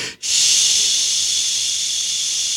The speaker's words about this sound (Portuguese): Tem um pink noise. Pink noise o que, que é? É, é nada, é a soma de todas as frequências.